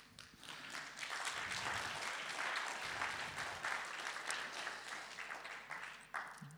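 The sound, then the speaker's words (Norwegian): Steady applause from a group, dense overlapping claps forming a continuous crackling wash that holds fairly even for several seconds before tapering slightly at the end. “Kan jeg gi en applaus?”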